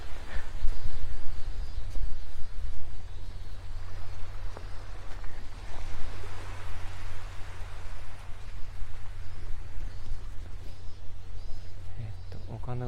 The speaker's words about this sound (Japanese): こうだったらいいなっていうのが全部揃った完璧な朝の海ですね波音聞いてたら眠くなってそうなんですね波音なのか私の声なのかっていうところですが